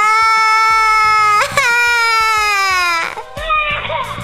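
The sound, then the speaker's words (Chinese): A child cries loudly in long, high-pitched wails, one sustained howl breaking into another, ending with choppier, sobbing gasps. No one speaks. “她开始放声大哭，哈！”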